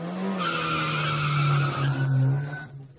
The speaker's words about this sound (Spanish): Vaya tan rápido como pueda. No se preocupe por el límite de velocidad. Tenemos que salvar a este gato. Salín apretó con fuerza el volante, aceleró el motor y entonces Salín dio el paseo de su vida.